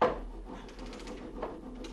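Several hollow knocks on a wooden wardrobe, tapped in a quick, uneven series after a sharper first hit, moderately loud with a low rumble beneath and no voices.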